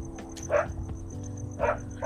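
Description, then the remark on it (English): Dogs bark in a few short, separate bursts over a steady low background hum, not overly loud, with no one talking. “Sorry, the dogs are barking.”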